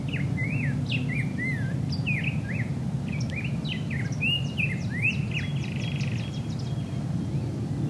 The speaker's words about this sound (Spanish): aquí en el cerro con el canto de los pájaros haciéndose presente. El susurro del viento en las hojas de los árboles.